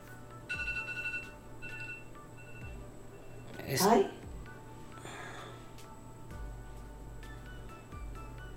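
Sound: phone alarm ringing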